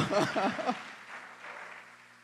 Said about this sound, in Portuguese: Dá uma aplauso forte ao Senhor.